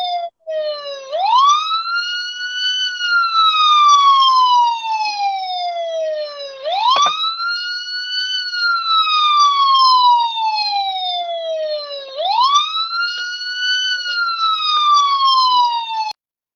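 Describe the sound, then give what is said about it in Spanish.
A loud police car siren wails continuously, each slow rising-and-falling sweep repeating about every five or six seconds, steady with no voices. “Cinco minutos de, sirenas de policía y nada más nada”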